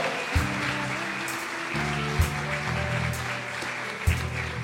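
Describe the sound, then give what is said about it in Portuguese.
A crowd applauds steadily for the name of the Lord, a dense wash of clapping over sustained low keyboard chords, with a few heavy drum thumps landing about every two seconds. “Aplauda o nome do Senhor.”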